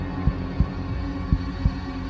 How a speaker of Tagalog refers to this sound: Nabibingi siya sa kabog ng kanyang puso at lakas ng kanyang hininga habang inaantay ang susunod na mangyayari.